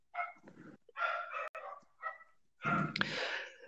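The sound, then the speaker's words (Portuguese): A female dog barks repeatedly, five or so sharp, yappy barks in quick irregular succession, the last one longer and more strained, with no one talking. “Caralho, minha cachorra atrapalha tudo, velho.”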